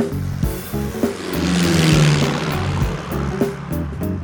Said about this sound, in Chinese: 第一次上机觉得，哎呀，飞机好小，因为是那个单引擎的七进式的这个螺旋桨的这这个这个小飞机嘛，呃，而且飞机是人推出去的，那个你在后面推，前面有人拽，就能把它给拉出去。